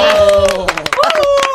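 A burst of applause with scattered claps, mixed with loud, sustained cheering voices that hold a steady pitch. It fills the whole moment without a break.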